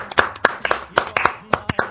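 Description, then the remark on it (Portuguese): Hands clap around ten times in a quick, slightly uneven rhythm, each sharp smack crisp and bright. No voices accompany the clapping. “Palmas, palmas.”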